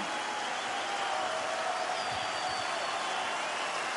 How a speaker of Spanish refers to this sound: Has trabajado tanto, lo deseabas tanto y ahora escucha como el público te aplaude.